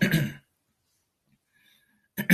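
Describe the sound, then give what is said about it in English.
Two short, rough throat clearings from a throat that is acting up, separated by nearly two seconds of silence, the first a bit longer and the second cut off at the end. No words are spoken. “Sometimes my, my, throat gets um, starts to act up on me.”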